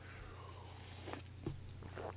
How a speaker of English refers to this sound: I'm going to have a sip of coffee.